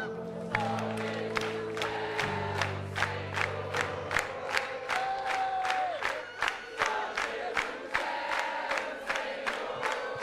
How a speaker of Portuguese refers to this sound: Vamos lá? Só a igreja e as palmas.